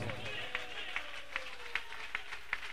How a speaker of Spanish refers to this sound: Dele palmas a Dios si lo sienten esta hora.